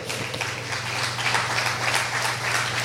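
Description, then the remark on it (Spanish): Sustained applause from an audience applauding God as the King, a dense wash of many hands clapping steadily for about three seconds, with a low steady hum underneath and no voices. “¿Cuántos le pueden dar un aplauso al rey?”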